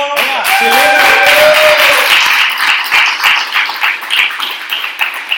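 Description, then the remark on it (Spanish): A live audience breaks into applause, a dense patter of many hands clapping at once, with a few cheering voices rising at the start before the clapping thins out toward the end. “Y bueno, como siempre hacemos cuando estamos en directo, pediremos un pequeño aplauso.”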